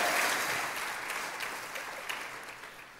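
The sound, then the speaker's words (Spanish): A church audience applauds the goodness of God in a steady, dense wash of clapping that stays fairly even throughout, with a few sharper individual claps standing out before it begins to taper slightly. “Un aplauso a la bondad de Dios.”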